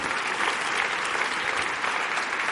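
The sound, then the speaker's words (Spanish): A church audience applauds God during a service, a dense, continuous wash of many hands clapping at an even loudness for a couple of seconds, with no voices standing out. “Y dale un aplauso a Dios con todo tu santo corazón.”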